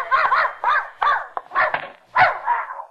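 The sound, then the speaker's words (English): A dog, Mrs. Pondecker's dog Rintin, barks loudly, a quick series of about half a dozen sharp, yappy barks in an uneven rhythm, the last one stretching into a short whine. “I uh, came for Mrs. Pondecker's dog to take him for a walk.”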